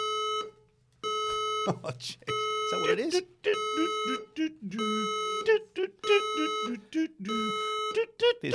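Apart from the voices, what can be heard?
building fire alarm sounding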